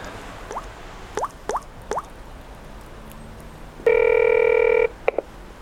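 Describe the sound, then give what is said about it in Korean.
A telephone rings with a single steady electronic buzz lasting about a second, preceded by a few quick plinking taps and followed by two short beeps. No one speaks. “아참, 전화.”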